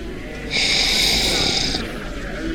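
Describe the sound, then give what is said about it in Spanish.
A single loud slurp, a sustained airy sucking noise lasting about a second before cutting off, with a low murmur of background noise throughout. “Aquí, Club de Sorvedores, siempre estamos listos para sorber.”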